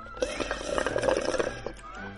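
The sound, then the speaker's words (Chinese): A voice imitates noisy eating, with a quick run of wet lip-smacks and mouth clicks for about a second and a half, over a faint hum before it trails off. “你听着那个香甜的吧嘴声啊”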